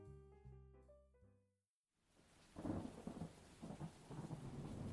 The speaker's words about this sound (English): The storm was coming.